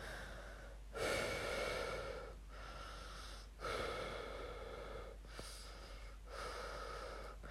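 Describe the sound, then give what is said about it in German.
A person imitates another person's loud, heavy breathing while asleep in bed: several long, rasping inhales and exhales in a slow, steady rhythm, with a wheezy, snorting edge and no talking. “Ja, aber ich performe jetzt und gerne mal, wie du atmest. Bett. Und das ist nicht übertrieben. Okay, los. Wenn du schläfst, atmest du so.”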